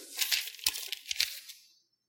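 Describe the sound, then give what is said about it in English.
A sheet of paper rustles and crinkles for about a second and a half, with a few sharper crackles along the way, then quiet. “If you take a sheet of paper, if you take this,”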